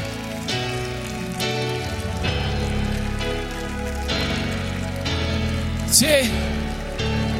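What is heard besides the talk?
loud audience applause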